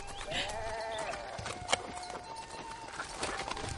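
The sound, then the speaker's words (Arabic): Goats bleat in a wavering, nasal chorus as the herd is being driven back, with scattered clicks and hoof-like knocks among the herd and no talking. “هيا هيا نرد المعزات”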